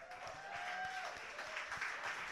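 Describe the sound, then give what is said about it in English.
A crowd applauds the judges after their scores are read out at a poetry competition, a dense wash of many hands clapping at once with no voices rising above it, holding at an even, moderate loudness throughout. “Always, always, always applaud the judges.”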